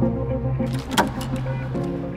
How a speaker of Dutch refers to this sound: ik doe de deur voor u open en dan kunt u met de lift of de trap naar de eerste verdieping komen.